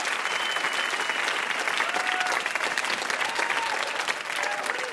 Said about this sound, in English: One more round of applause Thank for you. our VIP, Jad Abumrad.